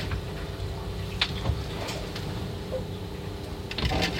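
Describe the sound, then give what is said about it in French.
A steady low mechanical rumble fills a ship's cabin as the boat rolls, with scattered knocks, creaks and light clatters of belongings shifting and bumping with the roll. No voices. “Là on entend le roulis, l'impact du roulis sur l'intérieur du bateau et mes affaires.”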